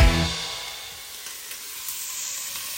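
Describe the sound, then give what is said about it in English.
Freshly chopped onion sizzles steadily in a hot frying pan while a spaghetti bolognese is cooked, a continuous crackling hiss after a brief low clunk at the start, with no voices. “Can you hear that sizzling in the pan? What that is, right, is an onion that I've just cut up because I'm going to cook your basic spaghetti bolognese.”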